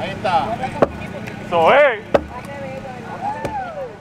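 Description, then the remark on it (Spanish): Three heavy sledgehammer blows, swung by a woman in her sixties, crack against a concrete wall around a swimming pool reconstruction during a citizen protest demolition. The blows are spaced about a second apart and sound sharp, while people talk and exclaim over the pounding. “Este es el sonido de esta mujer de sesenta y pico de años agarrando un marrón y derrumbando una pared de concreto.”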